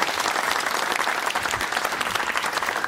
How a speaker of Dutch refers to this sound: Even maar een applaus